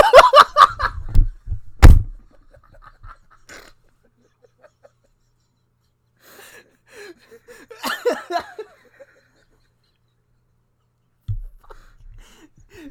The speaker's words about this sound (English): so you, you're walking in the car and you hear that. and you open the door get in next to your buddy.